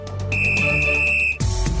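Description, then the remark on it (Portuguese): A single shrill whistle blast, blown as a segment cue, holds a steady high pitch for about a second, loud, over a low rumbling bed, then cuts off into a brief burst of noise. “Tem apito?”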